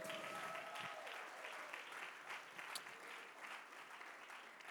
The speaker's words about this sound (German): Komm, ihr lieben Nürnberger, lasst uns mal unsere Freunde in Erlangen mal einen riesen Applaus geben.